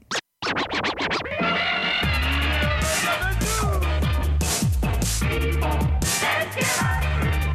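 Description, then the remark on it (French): Turntable scratching on CIBL 105 Montréal radio rips back and forth in quick rhythmic bursts over a loud, driving hip-hop beat with a steady kick and hi-hats, punchy throughout. “Au son du scratch, il sera très approximativement midi.”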